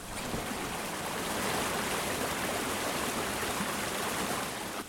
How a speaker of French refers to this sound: Je viens de m'arrêter avec mon vélo près d'une petite cascade, comme vous l'entendez peut-être. Je suis devant un lac magnifique